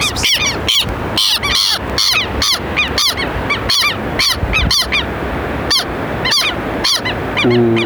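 A southern lapwing, standing face to face with a person and staring at them, screams loudly, a rapid series of harsh, piercing calls repeating in quick bursts with no pauses, with no one talking over them.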